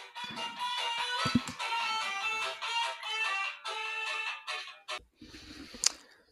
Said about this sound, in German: da hat doch eben mein Handy geklingelt. Anfängerfehler.